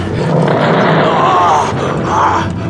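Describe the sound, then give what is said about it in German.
A large, fat sabre-toothed seal-like creature lets out a deep, rasping roar that rises and swells twice over a few seconds, loud, with a rough growling texture and no talking, amid ice and snow. “Der fette Seehund mit den Säbelzähnen hätte mich nur durch seine Masse bezwingen können.”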